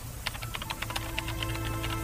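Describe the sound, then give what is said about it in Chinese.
Rapid, irregular clicking of keys on a computer keyboard, a steady run of light taps with no talking, over a faint constant hum. “但手指胡乱敲击着键盘，已经打出了一段文字。”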